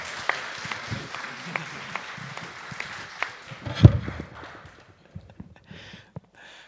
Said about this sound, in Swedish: en applåd här till våra fina